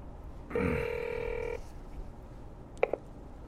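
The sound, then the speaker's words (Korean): A single steady, buzzy telephone ring tone of an outgoing call placed by a man in a car parked at a mountain entrance lasts about a second, then silence and two quick faint clicks. No one speaks. “허구동은 지란에게 전화를 했다.”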